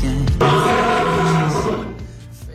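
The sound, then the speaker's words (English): A single loud roar from a wild lion, a deep, rumbling bellow that swells for over a second and then trails off, with no voices. “that's a wild lion, everybody.”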